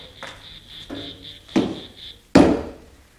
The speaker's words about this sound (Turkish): Vur şu ağaca cırcır cır böceklerini sustur. Aman kafam şişti.